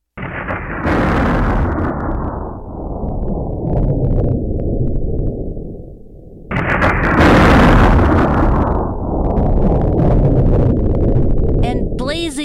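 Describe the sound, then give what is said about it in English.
Two loud crashes of thunder over a mountain covered by a huge cloud, one at the start and another about halfway through, each breaking into a long, heavy rolling rumble that fills the scene. “Well, as it happened, the next morning, as all the campers watched, God sent a huge cloud to cover the top of the whole mountain, along with crashing thunder”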